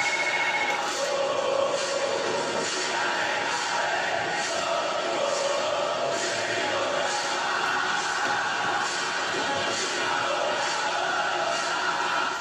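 A large crowd of Santa Cruz football fans sings and chants together in a stadium, a dense, steady roar of many voices with rhythmic pulses running through it, loud and unbroken throughout.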